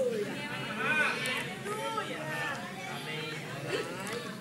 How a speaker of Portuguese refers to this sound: Você pode ouvir já uma grande multidão.